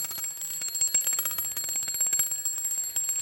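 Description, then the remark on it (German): An alarm clock with no snooze function rings continuously with a rapid, metallic, high-pitched rattle, loud, with no voices. “Und das Tolle an diesem Wecker ist, er hat nicht mal eine Snooze-Funktion.”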